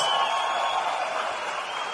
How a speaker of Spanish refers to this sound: a Carlos Eduardo Castellanos, mi embajador Corona. Este, eso merece un gran aplauso,